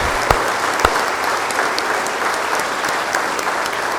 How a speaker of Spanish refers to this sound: Pues un aplauso a todos estos muchachos y a nuestra comunidad.